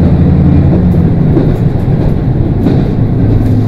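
A train rolls along the rails with a steady, loud rumble, wheels clacking in irregular beats over the continuous low drone. It is a train on the Nemuro Main Line (Hanasaki Line) between Nemuro, Akkeshi and Kushiro in Hokkaido, Japan. Nobody speaks.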